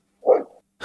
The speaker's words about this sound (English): So sorry about my dogs barking.